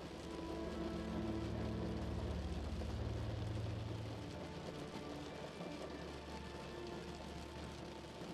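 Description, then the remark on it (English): Steady rain patters against window glass in a dense, continuous wash of tiny taps, with a low rumbling hum underneath for the first few seconds. “The sound of the rain is relaxing as it taps out a message to your mind to become calmer.”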